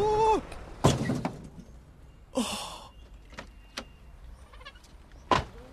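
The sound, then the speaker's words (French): A car whose brakes have failed in a traffic jam gives a short tonal brake squeal, then a sharp thud as it crashes into another car, followed by scraping rattles and a couple of lighter knocks, with no voices. “Vous ne pouvez pas me rentrer dedans comme ça.”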